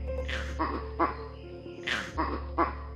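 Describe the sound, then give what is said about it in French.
A sequence of harsh primate alarm calls, krakoo, wakoo, hok, signalling that an eagle is attacking in the canopy: about six loud barking cries in uneven pairs, ringing out over a steady low background hum. “La séquence des cris krakou, waku, hoc, un animal dans la canopée aigle, indique un aigle est en train d'attaquer en ce moment même.”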